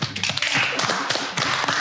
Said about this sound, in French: Alonso est en plateau pour la deuxième fois de rap jeu et ça nous fait très plaisir. On peut applaudir.